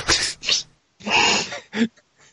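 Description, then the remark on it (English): A quick run of sneezes, three or four sharp bursts in close succession with short breathy pauses between, fairly loud, trailing off into a faint final sniff. “seems to have been seized by a fit of sneezes.”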